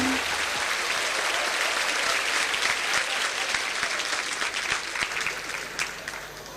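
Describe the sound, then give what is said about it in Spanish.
Sustained applause from an audience, dense crackling claps filling the whole stretch at steady loudness, tapering slightly toward the end. “Querido sobrino, no te escribí hasta ahora porque estaban aplaudiendo.”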